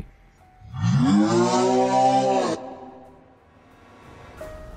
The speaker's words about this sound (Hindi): वो लोग उनका पीछा कर रहे थे कि तभी एक बहुत तेज हावले की आवाज गूंजी